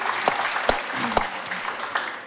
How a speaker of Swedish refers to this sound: Det blir lite sus här nu i publiken.